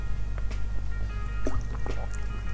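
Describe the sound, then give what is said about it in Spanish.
Wet mouth sounds of someone sipping water: a few small slurps and gulps with soft liquid clicks, quiet, over a steady low hum, with no talking. “Perdonen que acabo de tomar un trago de agua, voy a tomar otro más.”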